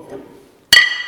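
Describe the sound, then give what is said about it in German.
Glasses clink together in a toast, one bright sharp strike with a ringing tone that lingers, following a brief stretch of faint, low voices. “Also zum Wohl.”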